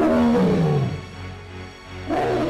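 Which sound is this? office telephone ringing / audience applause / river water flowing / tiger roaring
tiger roaring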